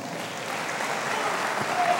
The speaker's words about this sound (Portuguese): Quem tem sonhos aqui, aplauda ao Senhor.